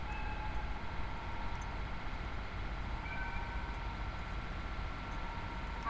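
The Hokutosei sleeper limited express bound for Ueno rolls slowly into platform 8 of Hakodate Station, its steady heavy rumble layered with thin, sustained metallic whines, continuous for the whole stretch, with no voices.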